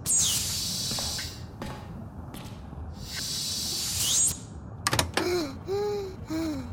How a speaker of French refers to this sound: Ouverture de porte.